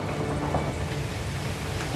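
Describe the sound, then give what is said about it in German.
A storm at sea around a ship in fog and strong wind roars steadily, heavy rain hissing across the whole range with a deep, rumbling thunder underneath, loud and continuous with no voices. “Der Sturm”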